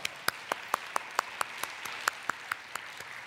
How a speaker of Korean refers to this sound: 이 아침에 우리 하나님께 박수로 영광 올려드리겠습니다. 할렐루야.